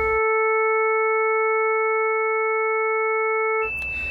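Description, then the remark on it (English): A steady synthesized tone built from five summed harmonics, the fundamental plus the second to fifth, holding a buzzy, organ-like pitch at an even loudness for about three and a half seconds before cutting into a brief noisy shift. “As you can see it's smaller because there's actually less of this harmonic around and then when I add it to the other four we've got the end result just here.”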